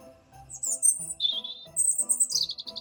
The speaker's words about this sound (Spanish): Muy pronto lo supo, porque la mañana del día de Navidad se vio rodeado del susurrante sonido de las alas de un montón de pájaros que revoloteaban a su alrededor sin parar de piar y gorjear.